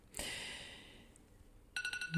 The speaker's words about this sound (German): Ja, jetzt kommt hier mein Timer.